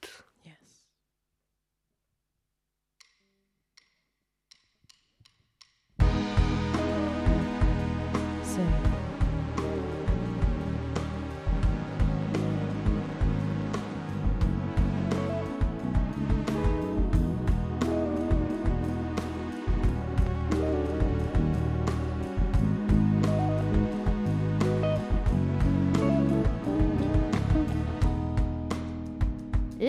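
After several seconds of near silence, a contemporary soul R&B song kicks in, full and loud with a steady, smooth groove that carries on without a break to the end.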